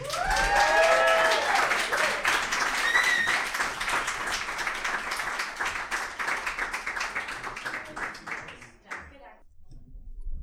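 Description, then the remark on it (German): Loud crowd applause with cheering and whistles on top as an audience welcomes a duo of hosts, rising sharply at the start, sustained dense clapping for several seconds, then thinning out and fading near the end. “Mach mal ein bisschen Lärm für er, sie und ich.”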